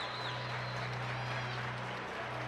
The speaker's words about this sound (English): And the Marshfield crowd comes to its feet as their starting five are about to be announced. We'll hype up the crowd from our PA guy as we bring out the Tigers starting five.